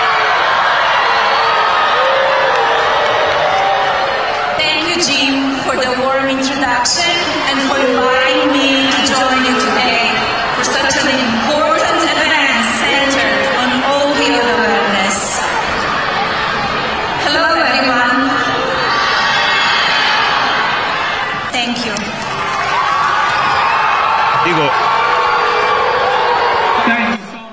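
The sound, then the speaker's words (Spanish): A large student crowd boos loudly and steadily for nearly half a minute as First Lady Melania Trump is introduced, with scattered applause, shouts and whoops mixed into the dense roar of voices. “Al final sí le aplaudieron muchos estudiantes, pero la mayoría la bucharon y la sacaron.”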